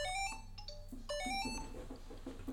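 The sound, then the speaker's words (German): A landline telephone rings with a melodic electronic ringtone, a quick run of stepping tones repeating steadily over a low background hum, with no one speaking. “Bei mir klingelt das Telefon.”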